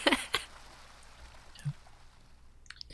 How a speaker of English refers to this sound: yeah, the uh, the sound of the waterfall is actually quite loud from behind you. So uh, you're you're really any sounds that you would hear inside the cave are pretty well drowned out, um, pun intended, by the water.